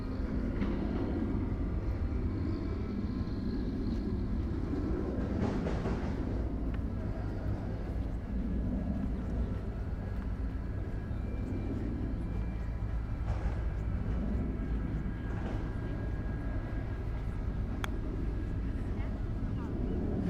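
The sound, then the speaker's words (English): A steady, low roar of aeroplanes passing overhead at Kew Gardens, droning continuously with a rumbling hum of workers' machinery and faint background voices mixed in. “although you may hear the aeroplanes and the machinery of the workers here in Kew Garden.”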